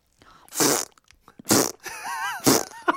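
sound effect, fart sound effect

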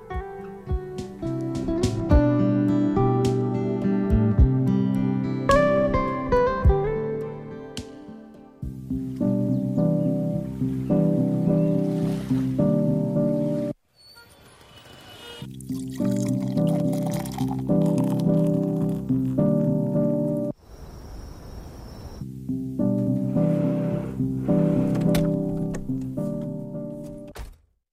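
song playing

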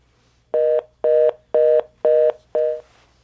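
signal or alarm, telephone dial tone

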